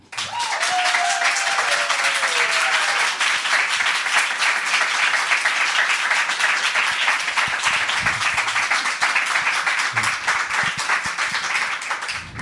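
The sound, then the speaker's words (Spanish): A crowd at an evening radio program event in Malasaña gives the first applause of the night to welcome a guest. The applause is steady and loud for the whole stretch, a dense wash of many hands clapping with no pauses, plus a faint whistle-like tone briefly near the start. “Por eso, el primer aplauso de esta velada se lo lleva ni más ni menos que el gran Aitor Saraiva.”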